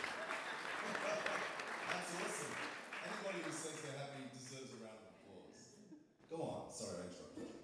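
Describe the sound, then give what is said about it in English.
An audience claps in a steady, dense burst of applause that fades, with voices talking and cheering over it, then a brief louder flurry near the end. “Round of applause.”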